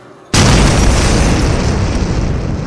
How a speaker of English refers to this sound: when the doors of the palace explode. Jon and Daenerys drop to the ground barely a heartbeat before the air is filled with a lethal barrage of ice. Chunks of shattered door fizz through the gloom